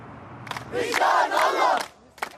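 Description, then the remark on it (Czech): A large crowd in the streets of Palestinian West Bank cities at night chants slogans calling for uprising and the destruction of Israel, many voices rising in loud rhythmic shouts with sharp bursts between phrases, then fading to a final short cry. “Skandovali hesla vyzývající k povstání a zničení Izraele.”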